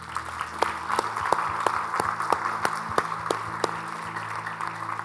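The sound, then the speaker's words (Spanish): An audience at a church service applauds steadily, a dense wash of many hands clapping at once with a few sharper individual claps standing out over the sustained roar. “un fuerte aplauso, Señor.”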